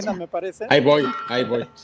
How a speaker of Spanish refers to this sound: agradecerles por ahí porque estaban sonando aquí las, las campanas. Y pues entramos a misa.